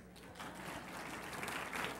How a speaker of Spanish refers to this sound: Dese un aplauso a las mujeres.